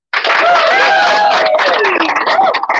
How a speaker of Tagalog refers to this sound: Tonight, we have another world champion. World champion po ang kakausapin natin ha. Ah. Kaya uh, excited na ba kayo? Kasi ako excited na eh. Uh, isang palakpak naman dyan.